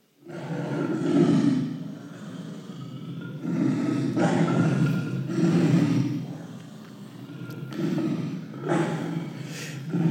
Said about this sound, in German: Man hört Löwengebrüll bis zu fünf Kilometer weit.